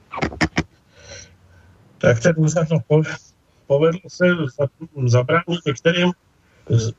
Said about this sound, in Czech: Teď je tam ozvěna obrovská. To no, teď je veliká ta ozvěna, ano. Čím to je? No, může, může to být prý také tím, že jsou přetížené sítě, protože jsou všichni doma a všichni leží na internetu.